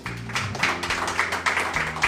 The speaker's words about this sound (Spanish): Ah, dale un aplauso a Dios.